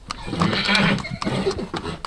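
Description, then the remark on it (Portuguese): A horse whinnies loudly, a shrill, wavering neigh that trails off into breathy snorts and shorter calls over about two seconds, with no talking. “Pelo som que estamos a ouvir, parece que vamos falar de cavalos.”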